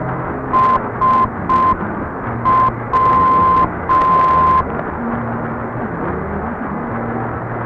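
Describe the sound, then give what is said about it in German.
An airport radio beacon keys its Morse call sign as a steady mid-pitched tone: three short beeps, then one short and two long, over a constant hiss and low hum of radio static. “So hört man beispielsweise den Flughafen Schepetivka auf 830 kHz mit dem Rufzeichen SW.”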